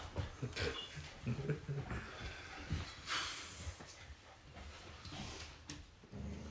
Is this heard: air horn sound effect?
no